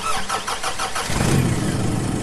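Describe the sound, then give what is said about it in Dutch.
A car engine running on synthetic fuel (e-fuel) cranks with a rapid rhythmic starter whir for about a second, then catches and settles into a steady, low idle rumble. “En dit is hoe een auto klinkt die op synthetische brandstof rijdt.”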